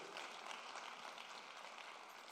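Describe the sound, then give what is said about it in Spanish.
A church audience applauds the Holy Spirit steadily, a dense wash of many hands clapping at an even, sustained level with no voices standing out. “Le puede dar un aplauso fuerte al Espíritu Santo.”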